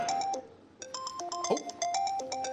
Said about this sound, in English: getting a call on my work phone. Hey, do you guys want to hear it?